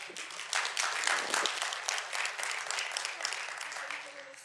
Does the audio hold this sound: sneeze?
no